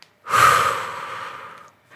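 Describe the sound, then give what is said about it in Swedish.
One long, heavy breath pushed out, a loud airy rush that slowly fades over about a second and a half, followed by a faint start of another breath. “Låt mig bara andas.”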